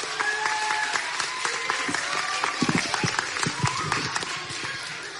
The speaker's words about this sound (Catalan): ara tancarà aquest acte el nostre alcalde, Rafa Navarro, per al que demano també un fort aplaudiment.